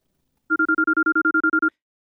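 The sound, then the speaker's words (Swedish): A telephone rings on an outgoing call to a rock driller: a single burst of about a second, a rapid warbling trill of pulsed electronic tones, steady and moderately loud, then silence. No one speaks. “Jag ringde upp honom för att fråga honom vad han tycker att en borrare ska ha gjort för att hans jobb ska gå så smidigt som det bara är möjligt.”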